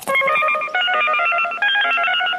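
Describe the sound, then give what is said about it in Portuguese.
A magic portal opening effect: bright, shimmering electronic tones ring out in three overlapping swells, loud, with a steady sustained hum and no voices. “Caramba, um portal do correspondente.”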